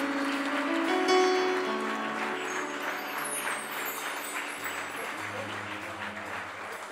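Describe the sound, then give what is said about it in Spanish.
An audience applauds the Lord steadily for several seconds, a dense wash of clapping over sustained organ-like tones that hold throughout. “Denle un aplauso al Señor por ellos.”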